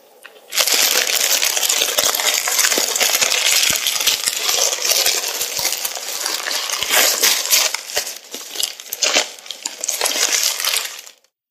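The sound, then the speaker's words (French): Continuous rustling and crinkling of a stiff cardboard-paper bag of bulk groceries being handled and squeezed, with dense crackly bursts for about ten seconds and no voices. “J'aime aller faire mes courses en vrac et ressentir la sensation du papier cartonné.”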